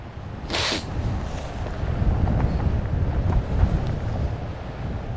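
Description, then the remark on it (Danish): Steady wind buffets the microphone outdoors on a sunny day, a continuous low rumble with gusts rising and falling, plus a brief brighter whoosh near the start. No one speaks. “De er alligevel, øh, selvom det er en dejlig solskinsrig dag, det, det blæser noget.”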